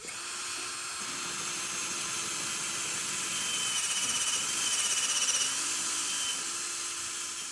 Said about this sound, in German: Es wird eine kleine Stelle freigelegt und dann der Bohrer angesetzt.